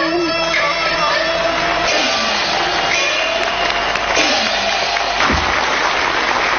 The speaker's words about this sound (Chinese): 您看底下掌声那么热烈，嗯，说明大家对棋派艺术还是非常热爱的。